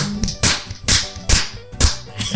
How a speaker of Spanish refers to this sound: Así es que un aplauso, por favor.